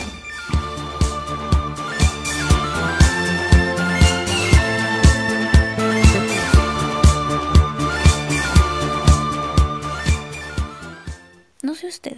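The original version of an upbeat disco pop song plays loudly, driven by a steady four-on-the-floor kick and bright sustained synth and vocal-like melody lines, before cutting off abruptly near the end.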